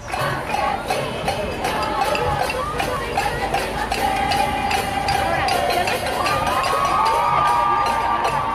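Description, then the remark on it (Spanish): A crowd of women protesters chanting "ni una asesinada más" in the street at a protest against violence toward women, their many raised voices merging into a steady, high-pitched roar over constant background bustle, with rhythmic pulses running through it. “No dejaban de gritar ni una asesinada más.”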